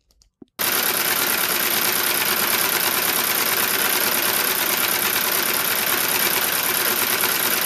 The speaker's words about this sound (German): Äh, klingt jetzt nicht so aufregend. Aber ich glaube, man kriegt ganz gut raus, wie ein Flatplane-Motor klingt.